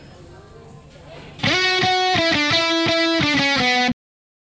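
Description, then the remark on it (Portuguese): A short, loud intro jingle of bright, buzzy, distorted synth-like tones punches in after a quieter murmur, steps through a few sustained notes for about two seconds, then cuts off abruptly into silence. “Depois da vinheta, dá o play macaco.”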